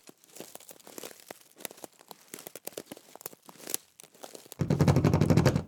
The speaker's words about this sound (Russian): Славяновед достал из кармана паспорт, вырвал из него страницу с фотографией и засунул ее себе поглубже в трусы.